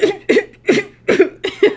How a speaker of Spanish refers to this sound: Ahí está. Discúlpenme, de verdad. O eso, tos de risa.